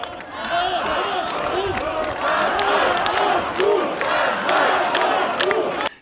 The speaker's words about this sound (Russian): Там есть несколько заводил, которые кричат первые, потом все остальные повторяют.